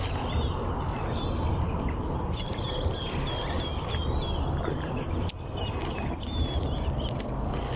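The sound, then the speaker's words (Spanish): Many small birds chirp and twitter in a busy, overlapping chorus in nearby trees at dusk, layered over a steady, rumbling outdoor background with no one speaking. “Escucha los pájaros.”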